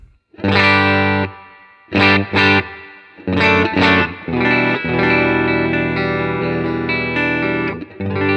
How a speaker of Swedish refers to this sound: Så här är då eh, gitarren och eh, Dreamen helt enkelt ja, bara. och med Dreamens reverb.